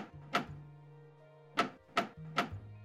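Four sharp metallic bangs of a metal door knocker striking a door, one followed after a pause by three quicker knocks, loud with a low hum underneath.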